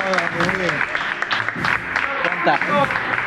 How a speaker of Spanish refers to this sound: Vamos a, vamos a dar un aplauso, por favor, al público. Aplausos al público.